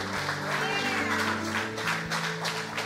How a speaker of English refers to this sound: Come on, give him a hand clap as he comes forward. Anybody else? Come on, give them a hand clap as they come forward.